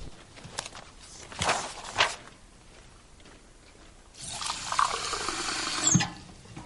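Water is poured into a glass in a steady splashing stream lasting a couple of seconds, after a few soft knocks and footsteps, as a glass of water is given to a man in an interrogation room. No one speaks.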